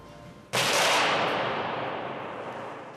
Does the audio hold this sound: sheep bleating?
no